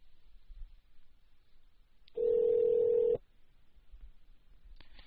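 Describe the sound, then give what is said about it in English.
A phone line rings once: a steady, fairly loud ringback tone lasting about a second, with faint line hiss and quiet clicks before and after. “Let's try to call”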